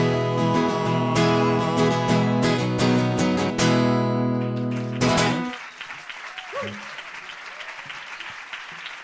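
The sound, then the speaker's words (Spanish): A burst of music cuts off partway through and an audience breaks into sustained applause, a dense patter of many hands clapping at moderate loudness until the end. “Y me acabo de ganar el primer aplauso del año, por cierto.”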